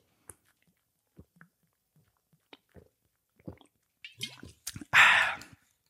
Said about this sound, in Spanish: bueno, esperad, vamos a hacer otro trago dramático y así asimilamos todo esto.